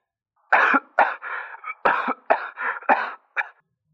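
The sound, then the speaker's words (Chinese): A harsh, sputtering coughing fit after spitting out a mouthful of water, about seven quick bursts, some clustered together, loud and raspy with no talking, ending in one short final cough. “雷警官一口水就喷了出来，一边咳嗽一边说道”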